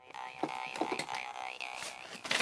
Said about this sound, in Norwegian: Det er en typisk eh, Rahastan-harpe. Kraftig klang.